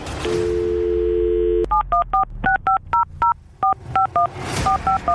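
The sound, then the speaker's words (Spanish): A steady dial tone gives way to a quick run of about a dozen touch-tone beeps as a phone number is punched in, each short dual-pitched tone separated by brief gaps. “Vamos a marcar y cuando te conteste, pues entras tú, la saludas y le dices si quiere regresar contigo.”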